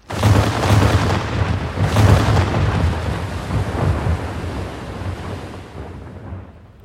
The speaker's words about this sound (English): Closer and closer they came to Molua, but at the very moment we were sure he was to be caught and torn to pieces, Miranda, the captain of the Estalian boat, ordered his cannons fire on the remaining crabs.